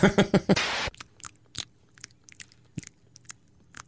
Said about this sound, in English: what did my brother call that? Uh, banana noises, That's right. banana chewing or something. I don't know. He says he says, "Do you want to hear a banana?"